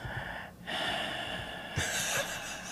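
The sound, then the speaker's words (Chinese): A voice imitates heavy, breathy gasps like a person panting, a sound heard inside a car at night around 11 pm. Airy inhales and exhales come in a rough, uneven rhythm. The breathing is fairly loud and sounds strained, with no other talk. “敢若人咧喘气诶声，你知影？”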